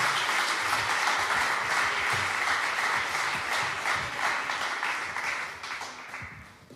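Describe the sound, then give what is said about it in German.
Sustained applause from a church audience welcoming a married couple to the stage, a dense crackling wash of many clapping hands that stays loud throughout and tapers slightly toward the end, with no voices over it. “Gebt ihnen einen fetten Applaus.”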